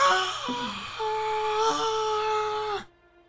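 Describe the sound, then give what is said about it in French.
A person voices a long, wavering inhuman scream imitating a banshee, a sustained eerie wail with bending pitch for nearly three seconds, loud, then cutting off abruptly into quiet. “Je fais bien les cris inhumains. Effectivement, ça fait peur.”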